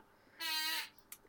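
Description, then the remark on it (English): A chair lets out a single loud, high-pitched squeak lasting about half a second, strained and almost bleat-like, followed by a brief faint tick. No one speaks. “Sorry, that was my chair squeaking.”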